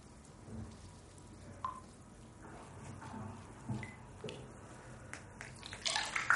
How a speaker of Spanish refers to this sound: Ella aclara la cuchilla y se la devuelve.